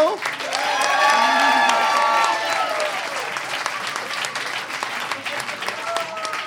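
An audience applauds a contestant, bursting into sustained applause with cheering and whistles, loud and dense for a few seconds before easing into steadier clapping with a few shouts.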